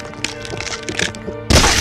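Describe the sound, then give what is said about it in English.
Bones crunching as Krampus chews through a neck, throat first, then up into the chin: a run of irregular cracks and wet crunches over a low sustained drone, ending in a sudden louder, harsher crunching burst. “He's chewing up under and into my chin! Through the back of my throat!”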